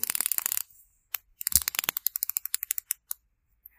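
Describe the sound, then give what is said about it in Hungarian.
The bezel of an Orient Star dive watch being turned, giving a dense run of tiny metallic ratchet clicks, then a pause and a slower series of separate clicks that gradually space out. “Egy kis hang a lünettától,”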